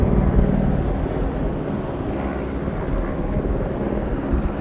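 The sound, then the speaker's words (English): A loud, steady mechanical roar of at least four helicopters hovering close overhead, a dense rumbling drone with a faint pulsing texture that fills the whole clip without pause. “There's at least one, two, three, four helicopters above. They are close.”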